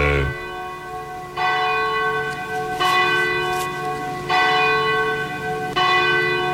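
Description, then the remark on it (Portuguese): The large bell of the Cathedral of Nossa Senhora de Aparecida in Brazil tolls at 11 minutes to 10 at night in slow, regular strokes. Each stroke rings out with rich, sustained harmonic overtones that overlap and decay into the next. Loud and resonant, with no talking. “11 minutos faltam para as 10 da noite, momento que bate o sino da Catedral de Nossa Senhora de Aparecida.”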